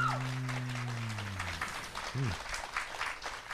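An audience applauds in a steady, dense crackle of many hands clapping, with a sustained low humming tone fading in the first seconds and a brief vocal sound partway through.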